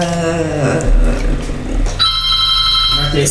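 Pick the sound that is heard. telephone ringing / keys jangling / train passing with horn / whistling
telephone ringing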